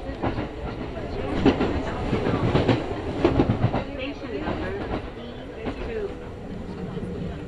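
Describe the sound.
A Kintetsu Nagoya Line local train in Japan, running from Kintetsu Nagoya toward Kanie, rumbles along the rails from inside the carriage. Steady wheel clatter and rhythmic clicks over track joints sound loud and continuous, while voices murmur faintly beneath.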